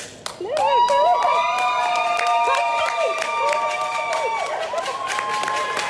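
A crowd cheers loudly at an airport as Paralympic table tennis player Will Bailey arrives home from Tokyo after winning two silver medals, with sustained high shouts and whoops over steady, rapid clapping that carries on throughout.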